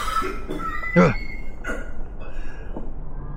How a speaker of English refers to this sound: It's like a smoker's cough. It's rough.